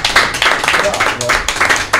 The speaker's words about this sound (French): Et eh ben on applaudit